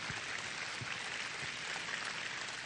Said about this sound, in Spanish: Podemos darle un aplauso a todos los que levantaron su mano.